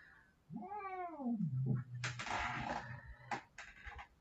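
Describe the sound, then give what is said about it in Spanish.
A female cat lets out a drawn-out, wavering yowl that sinks into a low growl, followed by two sharp, breathy hisses as its owner tries to put a hand on it, fairly loud with no talking. “Estoy tratando de ponerle la mano y me, bufa.”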